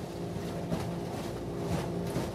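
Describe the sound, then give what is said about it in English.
A boat motor drones steadily, a continuous low engine hum with faint water rush, heard aboard a boat traveling on a river toward the Kytalyk Natural Reserve. No one speaks. “Fortunately, after two days, the storm settled down so we have to grab that short period of time and just get on the boat, traveling on the river.”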